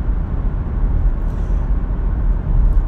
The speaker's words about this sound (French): Aujourd'hui il est 5h43, je suis en route pour le travail comme d'habitude, dans ma petite voiture avec le téléphone à mode pare-soleil.